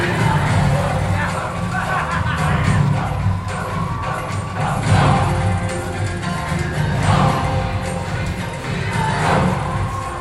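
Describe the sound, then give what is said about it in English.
A dense crowd at the Aki Aki Festival of the Ancestors, a celebration of colorful kites and sweets, murmurs and chatters for the whole stretch, a steady wash of overlapping voices with occasional swells of louder cheering rising above the babble. “There's always random first order patrols in crowds like these.”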